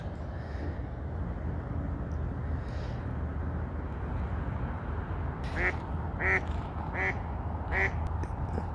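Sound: duck quacking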